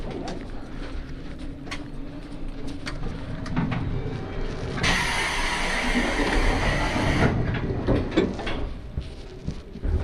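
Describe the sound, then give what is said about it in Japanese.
The Relay Kamome limited express train departs in Kyushu, Japan, and rolls along the rails with a steady rumble and rattling clatter, while a loud burst of hissing rushes in midway for a couple of seconds before fading. “かもめ3号に連絡しております発車します千丸通りご注意ください次は二日市に停まります”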